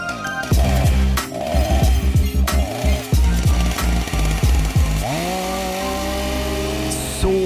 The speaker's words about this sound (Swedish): sågen igång